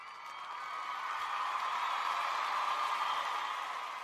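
A steady burst of applause sound effect, played in to mark the start of a Pokémon topic, dense crowd clapping that swells in over the first second and holds at an even level for about four seconds, with no voices over it.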